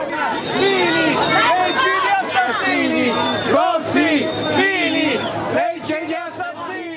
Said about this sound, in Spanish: Con esos gritos de asesino recibieron los vecinos de la isla a Angelino Alfano, vicepresidente del gobierno italiano y ministro de Interior en 2013.